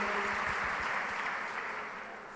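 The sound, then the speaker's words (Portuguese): A crowd applauds steadily, a dense wash of many hands clapping at once that stays loud before easing off slightly toward the end, with no one speaking over it. “Você pode aplaudir?”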